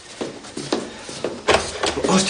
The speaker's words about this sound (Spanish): Fidel entra en la casa de Pilar y va directo a abrir la puerta del cuarto de baño.